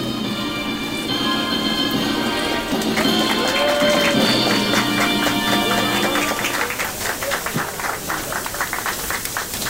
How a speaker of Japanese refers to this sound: それでは私の築地牛竹オープンですの掛け声に合わせてテープをカットしてくださいお集まりの皆様テープカットと同時に大きな拍手をお願いいたします